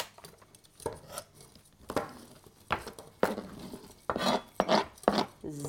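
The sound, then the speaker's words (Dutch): Walnuts being chopped into pieces on a board, a series of sharp knife strikes at an uneven pace, some clustered close together, with faint scraping and shuffling between them. “En dan moeten we tenslotte nog eh, de okernoten doen, hè? de walnoten.”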